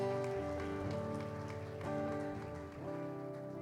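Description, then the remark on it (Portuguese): A church audience applauds Jesus during a service, steadily for several seconds, a dense, loud patter of many hands, with sustained keyboard chords ringing underneath the clapping. “Aplauda Jesus.”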